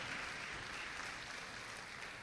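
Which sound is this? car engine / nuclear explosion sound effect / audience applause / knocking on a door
audience applause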